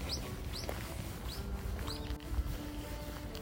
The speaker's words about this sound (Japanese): はい、鳥も鳴いてますちょっとウグイスは今日聞こえないんですよね